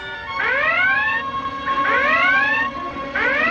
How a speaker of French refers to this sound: Faites taire cette maudite sirène Déclenchez l'alerte jaune